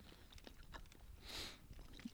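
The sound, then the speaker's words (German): Quiet chewing with small wet clicks and crunchy bites, a slightly louder burst of mouth noise midway, as someone bites into and chews a piece of cheese from a block about 10 by 10 centimetres and 2 centimetres thick. No one talks. “Kann ich jetzt nicht einfach reinbeißen. Geht schon.”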